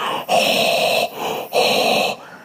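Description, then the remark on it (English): A voice imitates the heavy, rasping, scuba-tank-like breathing of a large fish just pulled out of the water: two long, loud hissing breaths with a softer one between them, rhythmic, with no talking. “I don't know what it's going to sound like through this recording, but essentially, yeah, like scuba tanky.”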